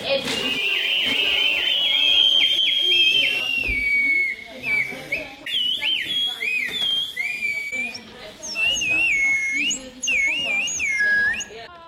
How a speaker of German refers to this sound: Also Ziel war es dabei, ähm, ein Instrument, also ein und das gleiche Instrument zu bauen, aber aus drei verschiedenen Materialien. Team Holz, wir bauen eine Pfeife.